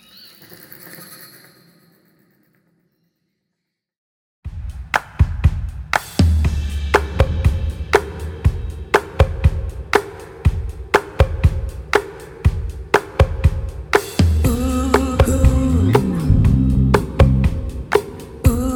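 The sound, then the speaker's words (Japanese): Strangers teamed up in a dark, cave-like exhibit space (the hands-on exhibit Cave Without a Light) play instruments together: after a faint tonal passage and a pause, steady percussive knocks start up over low droning notes, then thicken into a fuller, louder layered rhythm with no talking. “ケイブ・ウィザート・ア・ライトは、暗い洞窟を模した空間で見知らぬ人同士がチームを組み一緒に楽器を演奏するという体験ができる展示でしたまずは音をお聴きください”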